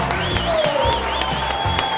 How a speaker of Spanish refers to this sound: Estamos haciendo hoy las Mañanas Kiss desde Vigo. Y quiero que le deis un fuerte aplauso a Abel Caballero.